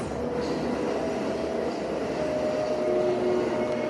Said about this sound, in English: Do you hear the train?